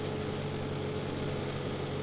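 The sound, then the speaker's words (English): A heavy truck engine, hauling 10 tons, drones steadily and loudly, a continuous low rumble with a humming tone and no change in pace throughout. No one speaks. “Especially with 10 ton like this shoving us along.”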